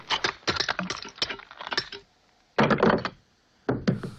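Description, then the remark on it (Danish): A small statue is crushed in a gloved hand, giving dense crackling and crunching clicks, then two shorter crunching bursts after brief pauses, fairly loud with no voices; the sound is made of six different sounds layered together. “Jeg, jeg ved ikke, hvad den er lavet af, men, men den, den larmer i hvert fald gevaldigt, da han ja. knuser den i sin hånd, og det, det er seks forskellige lyde, han har lagt oven i hinanden der.”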